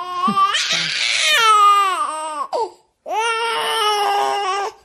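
A baby cries loudly in two long wailing bursts with a brief gasping pause between, the voice strained and high-pitched, with no talking, just after hearing a voice message from its mother.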